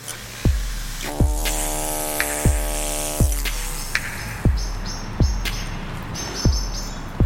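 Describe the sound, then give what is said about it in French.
Small birds chirp in short high bursts in a cemetery beside the périphérique ring road, over a steady low hum of traffic, with a regular dull thudding repeating through the background. No one speaks. “Vous entendez les oiseaux Il y a des pies, il y a des.”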